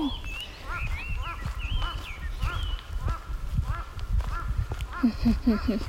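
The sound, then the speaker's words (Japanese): Crows caw over and over, their harsh calls overlapping from several birds fairly close by, with steady low outdoor rumble underneath. “カラスが近い”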